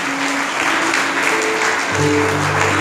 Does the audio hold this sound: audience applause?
yes